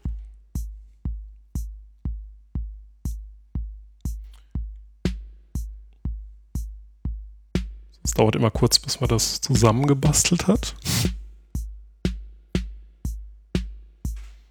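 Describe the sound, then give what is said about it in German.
Steady, punchy bass-drum hits from a modular synth pulse throughout with lighter snare-drum accents shifting against them step by step, forming an interlocking electronic polyrhythm; a man speaks briefly over it midway. “Dann bekommt man plötzlich Rhythmen, die sich gegeneinander verschieben.”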